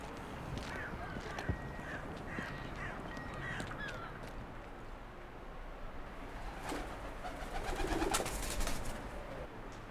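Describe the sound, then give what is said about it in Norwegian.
A flock of crows bursts into flight in the wind with a flurry of flapping wings, building in the last few seconds, over scattered cooing and calls outdoors. “Sånne lettere av fugleflokken igjen.”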